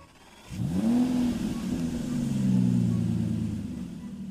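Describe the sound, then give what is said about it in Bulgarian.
A heavy armored car engine starts up and revs, its low rumbling pitch climbing and then settling into a steady drone as it pulls away, fairly loud; the car is carrying Benazir away after a Pakistan People's Party rally. “След края на митинга, Беназир се качва в бронираната кола, която би трябвало да я отведе на сигурно място.”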